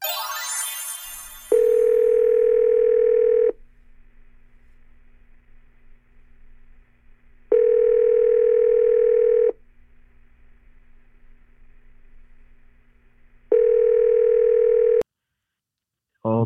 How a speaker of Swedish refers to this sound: Att vi gör väl så att vi ringer upp dem. Ja, det gör jag faktiskt.